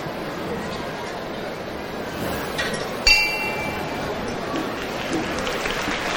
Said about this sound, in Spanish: Bueno, pues ya se escucha la campana del descendido